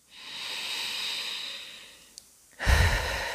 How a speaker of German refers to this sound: Und dann nimm ganz bewusst einen tiefen, erfrischenden Atemzug und atme einmal vollständig und vielleicht sogar mit einem Seufzer aus. Mach es auch gerne nochmal, wenn es dir gut tut.